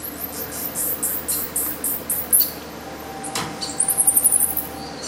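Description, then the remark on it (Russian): A rapid run of high-pitched chirps and squeaks from a 55-day-old sac-winged bat pup babbling, in repeated bursts over a steady background hiss, with a sharp click partway through. “А вот так звучит маленький мешкокрыл. Ему 55 дней, и он это делает уже 37 дней, не переставая.”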